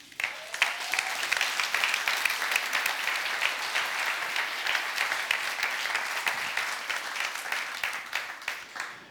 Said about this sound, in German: Ich glaube, das ist ein Applaus wert